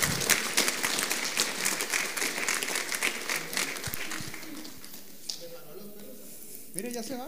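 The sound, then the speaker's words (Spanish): An audience claps and applauds steadily for several seconds as applause to the Lord at the end of a sermon, the dense clapping fading gradually as voices begin to talk over it near the end. “Dele un aplauso al Señor y nos vemos el martes.”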